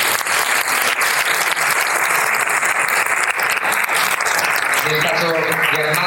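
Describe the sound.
Sustained audience applause, a dense, steady patter of many hands clapping loudly for about six seconds, with a voice starting to speak over it near the end.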